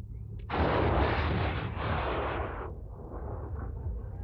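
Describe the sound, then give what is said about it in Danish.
Iranian heavy artillery fire erupts in a sudden loud boom, followed by a broad roaring rumble with a second swell before it drops into a lower, lingering rumble. No voices. “Away from the Kurdish mountains, large armies could become clear targets for Iranian heavy artillery.”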